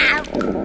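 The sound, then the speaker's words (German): A short, loud gurgling growl from a person's hungry stomach, a single rumbling burst lasting under a second with a squeaky, quack-like edge, with no talking. “Ich will dich ja nicht enttäuschen, aber ich fürchte, das war nur mein Magen.”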